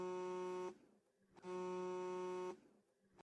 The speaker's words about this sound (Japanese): その時、銅めの携帯が鳴った。